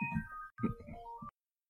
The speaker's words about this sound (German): Oh, ein Telefon. Telefon. Telefon, ja, Moment.